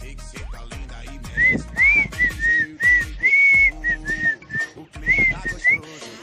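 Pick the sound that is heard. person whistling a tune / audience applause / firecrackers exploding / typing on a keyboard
person whistling a tune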